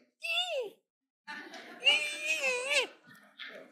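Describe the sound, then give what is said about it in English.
A voice imitates an infant: a short whimpering cry, a pause, then a longer wavering wail that breaks into brief babbling, fairly loud. “So your spirit is like, at first, it's goo goo gaga. It is. You're born again. You're you're an infant.”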